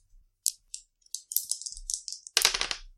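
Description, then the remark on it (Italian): Three dice clatter across a hard surface, a few sharp separate clicks building into a quick rattling tumble and ending in a dense burst of knocks. Fairly crisp, with no talking. “E quindi tre dadi.”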